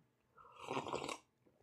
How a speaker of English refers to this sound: And now I'm going to slurp for the microphone.